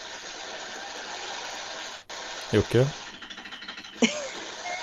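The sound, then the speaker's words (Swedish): Dishes being washed in a kitchen: a steady rush of running water with scattered clinks and clatters, and a voice briefly calls out partway through. “Du får sluta diska nu för fan.”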